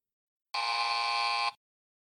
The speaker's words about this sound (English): A tiny buzzer went off. His watch timer.